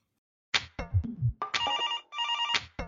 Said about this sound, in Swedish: Så att eh, vi kan väl slå en signal till deras coach för att stämma av läget. Det tycker jag.